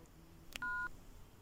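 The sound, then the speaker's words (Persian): A single telephone keypad dialing tone, a steady two-note beep lasting about a quarter second, preceded by a sharp button click, heard against quiet background noise with no talking. “بده من اون تلفنو”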